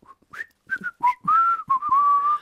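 A short whistled melody: a few quick chirpy notes, then longer sliding tones that rise and dip, clear, with no talking.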